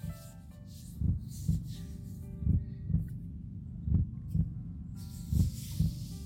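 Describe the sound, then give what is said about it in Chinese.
A slow heartbeat, one's own, heard during a relaxation exercise, thumps in low, muffled double beats, lub-dub, repeating about four times over a steady soft hiss, with no voices. “你听到了自己心跳的声音。”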